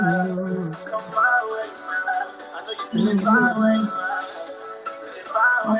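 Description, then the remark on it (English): A song plays steadily and fairly loud, with sustained sung vocal lines and layered harmonies, including a higher female backing singer, over a full instrumental mix. No one talks over it. “I'm getting I'm getting lost in the music. I'm gonna play the whole song.”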